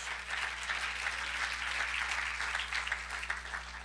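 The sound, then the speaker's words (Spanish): A church audience applauds the Lord during a sermon. A dense, even wash of many hands clapping for several seconds with no talking, holding at a moderate level throughout. “Démosle un buen aplauso al Señor, hermano.”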